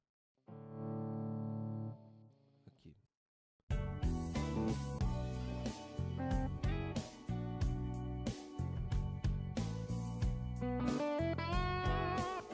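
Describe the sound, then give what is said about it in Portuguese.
An electric guitar with extra overdrive added plays a short blues backing part: one long sustained chord rings out, a brief pause and a spoken word follow, then a steady, loud riff of choppy chords continues. “Vou pôr um pouco mais de drive e botar uma pequena base de blues aqui para você, tá?”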